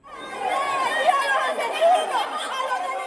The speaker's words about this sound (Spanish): Estos gritos se escucharon en la Catedral de Managua, Nicaragua. Se trata de un nuevo episodio de violencia contra la iglesia local.